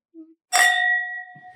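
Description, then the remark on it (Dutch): Wine glasses clink once in a toast, a sharp bright ding whose clear ringing tone lingers and slowly fades, with a faint low murmur just before it. “Ja, hoe te klinken, ja.”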